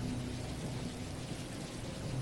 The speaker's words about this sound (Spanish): La noche era su cómplice, no dejaba ver nada más allá de la nariz, y la lluvia bloqueaba la poca aurora de luz que despedían los escasos autos que pasaban por el lugar.